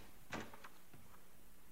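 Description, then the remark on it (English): A suite door down a hall opens about ten feet away with a sharp latch click followed by a couple of softer knocks and rattles, fairly quiet, then fades into faint background hiss. No one speaks. “I guess I was about ten feet away when her door opened.”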